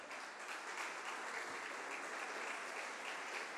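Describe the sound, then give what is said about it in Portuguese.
An audience claps for Jesus together in a dense, steady wash of applause that holds at an even level for several seconds, with no voices standing out above it. “Vamos aplaudir Jesus aí, irmãos?”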